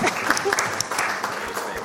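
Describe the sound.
Steady audience applause for a speaker, many hands clapping in a dense, continuous patter at a fairly even level throughout, with faint voices mixed in beneath the clapping.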